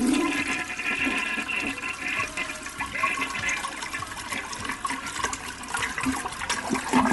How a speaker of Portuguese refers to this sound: E é uma descarga potente, por sinal, viu?